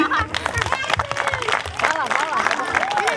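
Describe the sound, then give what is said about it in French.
A crowd applauds steadily for a few seconds for the boarding-school staff who helped at the race and prepared the picnic, a dense patter of many hands clapping, mixed with scattered voices and cheers rising over the clapping. “qui ont participé activement sur les points stratégiques, hein, qui vont vous préparer aussi le pique-nique, on peut les applaudir aussi.”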